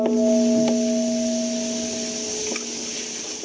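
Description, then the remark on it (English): A stringed instrument rings on by itself in sympathetic vibration, without physical contact, a steady humming tone with overtones that slowly fades as it is lifted closer to the microphone, over a soft background hiss and a couple of faint taps. “So it's very gentle, but nevertheless it does resonate. In fact, I can hear this vibrate as I'm speaking to you.”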